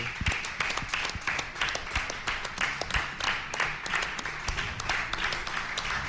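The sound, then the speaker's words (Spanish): An audience at the Hotel Marina applauds steadily for several seconds, a dense, continuous patter of many hands clapping at once, even in loudness throughout. “Así que un aplauso para vosotros, los que habéis estado aquí.”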